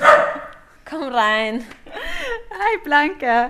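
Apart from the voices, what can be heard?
dachshund barking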